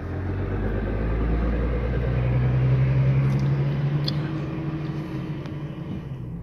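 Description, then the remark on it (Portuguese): Steady low road rumble inside a moving car driving home from work, recorded on a mobile phone: a continuous engine and tire drone with a faint hum rising midway, no voices, enveloping throughout. “caminho de casa, dentro do carro, no celular.”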